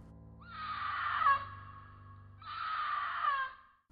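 A cougar in a very dense part of a forest near nightfall gives two drawn-out, high, woman-like screams, each lasting about a second, separated by a short pause. They sound faint and distant, with no talking.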